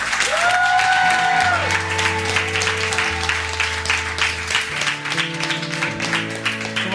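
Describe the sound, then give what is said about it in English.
A large crowd at an evening church worship gathering applauds and cheers loudly and continuously, dense clapping mixed with shouts, while sustained musical tones from keyboard or organ play underneath. “Guys, let's just take a moment and let's just celebrate what God did in this room tonight. Can we ever yell out?”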